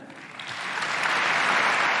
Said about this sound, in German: die ehemalige, dann noch amtierende für wenige Minuten Kanzlerin Angela Merkel auf der Gästetribüne begrüßte, großer Applaus.